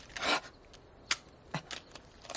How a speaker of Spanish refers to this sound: Rompe el móvil por la mitad y le quita la batería.